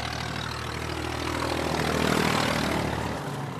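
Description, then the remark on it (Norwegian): A loud, steady engine drone with a throaty exhaust rumble from a farm vehicle with a nearly open exhaust in a farming municipality, swelling slightly in the middle before easing off near the end. “Det er en landbrukskommune, som vi kan høre. Det kommer en eh,”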